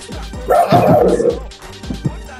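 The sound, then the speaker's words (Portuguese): A person barks like a dog: a few short yips, then a loud, drawn-out woof-like howl, followed by two more quick yaps. “Que fez o cachorro? Eu.”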